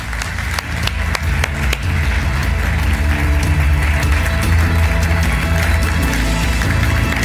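An audience breaks into loud, sustained applause, a dense wash of many hands clapping that holds steady for several seconds with no voices over it.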